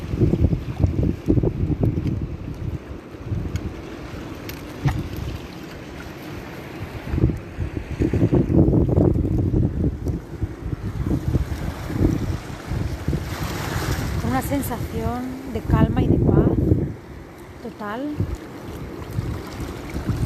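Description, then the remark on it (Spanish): Sea waves wash in and out with a steady wind rushing across the microphone, surges swelling and fading in an irregular rhythm, loud, with a brief faint voice in the background. “simplemente estáis ahora con vuestra respiración y con el sonido del mar”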